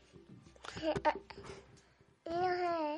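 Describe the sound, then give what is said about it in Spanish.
A young girl babbles in short, high-pitched bursts, ending with a loud, sustained vocal sound. “Mi hija os dice que, que sí.”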